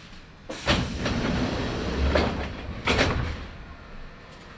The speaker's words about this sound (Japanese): 扉が開きます。ご注意ください。